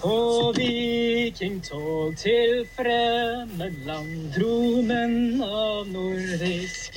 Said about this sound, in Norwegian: Han synger en gammel nazisang om Vidkun Quisling.